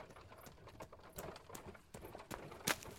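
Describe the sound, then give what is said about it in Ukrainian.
Horse hooves clip-clop at a steady, unhurried pace over a rough, rumbling background as the wheels of Ivan Levynsky's britzka, a light horse-drawn carriage, creak, with a sharp crack near the end. No one speaks. “І справді, рівно за секунду він почув енергійне цокання конячих копит та дзвінке скрипіння колес.”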